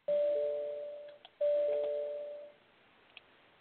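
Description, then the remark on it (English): A doorbell-like electronic chime from a computer that will not do something it was instructed to do rings twice in quick succession, each a clear two-tone ding-dong with a lingering tail, distinct, with no one speaking over it. “Doorbell. no, it's, so, it's my com- my computer is not wanting to do something it's been instructed to do.”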